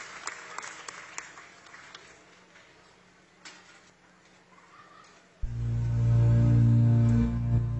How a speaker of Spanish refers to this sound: Fuerte el aplauso para el semillero creativo de teatro en Tecomán, Colima. Bienvenidos, chicos.